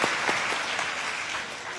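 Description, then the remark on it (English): An audience claps steadily for a dog that has just fetched the orange one on command, a dense patter of many hands at a fairly even, moderate level for the full couple of seconds, with no voices standing out. “Y'all clap for that dog.”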